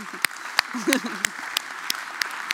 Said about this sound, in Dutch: misschien moeten we daar nog even een applaus. René ten Bos, nieuwe Denker des Vaderlands. Gefeliciteerd.